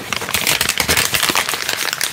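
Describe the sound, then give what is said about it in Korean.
Steady paper crinkling and rustling as a sheet of paper is folded and pressed flat, a dense run of small crackles that carries on for a couple of seconds with no voice over it. “뭐냐면 종이가 접혀 있는 거예요.”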